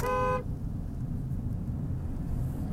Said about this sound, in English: So I had to honk the horn because somebody I was going through a roundabout and somebody just went straight across in front of me.